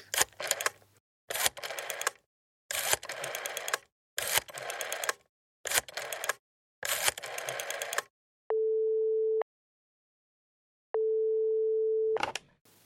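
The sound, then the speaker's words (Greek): A series of rapid mechanical clattering bursts, like a phone being dialed, gives way to a steady, fairly loud telephone tone sounding in two long beeps separated by silence. “Πήρε κάποια τηλέφωνα.”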